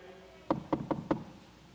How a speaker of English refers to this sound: And we look at each other and say, Was that the door? and it's a little knock. And when we open the door, here are the neighbourhood children wanting to see the bunnies.